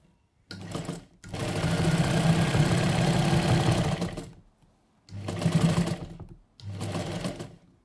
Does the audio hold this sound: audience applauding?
no